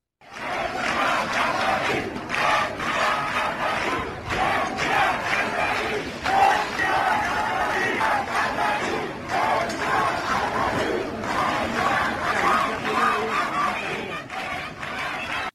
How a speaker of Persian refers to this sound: زن، زندگی، آزادی این شعاری است که بیش از ده روز است در خیابانهای ایران میشنویم